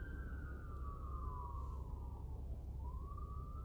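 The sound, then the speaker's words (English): A fire truck siren wails steadily, its tone sliding down and then rising again, loud over a deep rumble of engine and traffic noise, as firefighters pull up and the truck goes through without waiting for the light to turn green. “We've got firefighters pulling up.”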